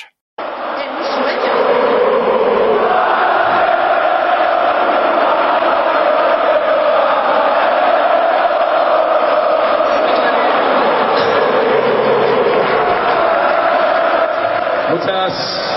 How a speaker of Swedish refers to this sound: Ballon de Oro, Rodrigo Ballon de Oro, är det som publiken skanderar. Fansen tycker att Rodri, som vunnit både Champions League och Nations League, förtjänar Ballon d'Or.